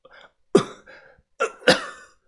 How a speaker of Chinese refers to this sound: 我躺在地上咳嗽了几声。